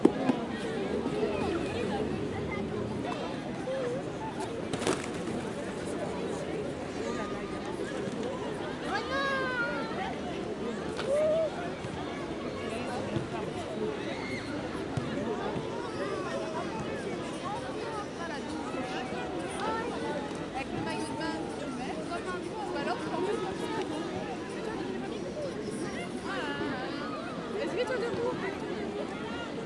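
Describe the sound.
A steady outdoor beach ambience on a beach in Marseille, where many overlapping voices blend into a continuous murmur of crowd chatter, with a constant broad wash underneath and a few brief higher-pitched calls.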